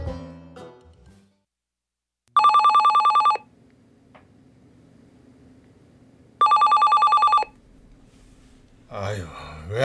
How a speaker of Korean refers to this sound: 아무도 전화를 안 받아.